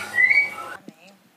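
A bird sings a clear, high whistled note that holds steady for a moment over a hissy background, followed by a soft click and a few faint, quieter murmurs.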